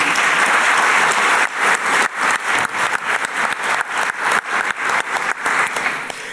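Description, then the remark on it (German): Audience applause for winners of the German Sustainability Award (Deutscher Nachhaltigkeitspreis) from the firm Sonett: a dense wash of many hands clapping at once, steady and fairly loud, thinning slightly into more distinct, rhythmic claps toward the end. No one speaks over it. “Ein Applaus für Sie.”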